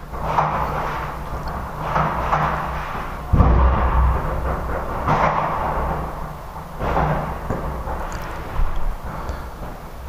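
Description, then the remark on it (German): Several muffled booming firework bangs at irregular intervals, going on for 17 minutes, dull and rumbling, heard indoors through closed windows, with no one speaking. “Also man hört es trotzdem, ne? obwohl alle Fenster zu sind.”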